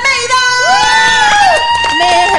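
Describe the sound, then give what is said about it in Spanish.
A loud crowd at a show bursts into applause and cheering as a guest is introduced, with high shrieks and whoops rising over a dense, steady roar of clapping and excited voices. “A mi mano izquierda, aplauso para la gran, inigualable, la novia de Chile”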